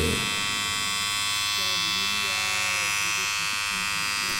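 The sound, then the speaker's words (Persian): A steady electric shaver buzzes continuously while trimming a beard, a bright dense hum with many high harmonics, while a low murmur of voice or tones shifts faintly underneath throughout. “ماشین رو روشن کردم و شروع کردم به”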